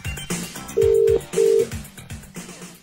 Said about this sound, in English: Wing wing. It's ringing.